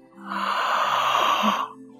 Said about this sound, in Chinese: 当我想睡的时候，我会伸伸懒腰，打个大哈欠